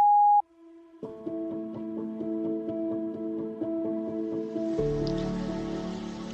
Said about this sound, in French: Merci de laisser un message après le bip sonore.